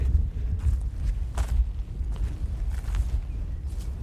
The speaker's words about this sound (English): I'm just walking towards on the shoulder of the Blorenge, really, the, the mountain. It's clad in its chocolate brown overcoat of bread, dead bracken. I'm walking, you can hear the crunch I'm walking on.